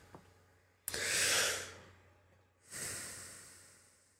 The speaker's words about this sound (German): Erstmal so ein Atmen und so fünf Minuten.